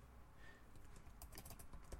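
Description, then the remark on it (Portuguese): Quick, uneven clatter of keys on a computer keyboard, a burst of typing with sharp clicks clustered in the second half, no voices. “Você vai ouvir som de teclado agora, ó, se liga.”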